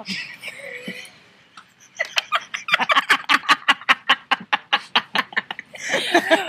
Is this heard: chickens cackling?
yes